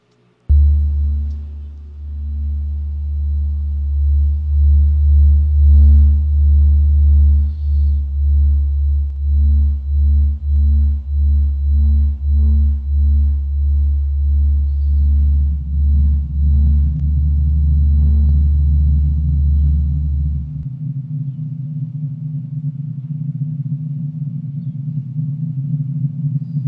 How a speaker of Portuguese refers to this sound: O sol, o som que o sol emite 365 vezes por ano, ou seja, o tempo todo, o tempo inteiro o sol está emitindo esse som.